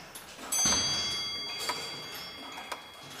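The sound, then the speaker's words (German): Mechanical clockwork ticking from German tower clocks on display in a museum, from places such as Leipzig in Saxony, Bockenem in the Harz and Kalf in Württemberg: a few sharp clicks over a steady hiss, with a louder clunk near the start; no one speaks. “An den tickenden Exponaten im Museum sind die Ortsnamen der bekannten Standorte zu lesen.”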